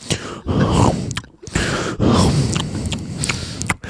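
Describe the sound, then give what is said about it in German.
A voice imitates a man's loud, heavy panting breaths while he eats a cookie, two long labored exhales with a gasping catch between them, breathy, with faint wet munching sounds mixed in. “Und dann hat er angefangen, den Keks zu essen und dann so. Nein. So, aber so, so schwer atmet, als wäre das was anstrengend, so, ne?”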